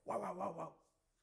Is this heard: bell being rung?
no